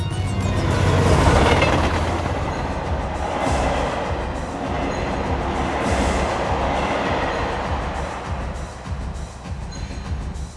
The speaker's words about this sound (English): Where did the train go?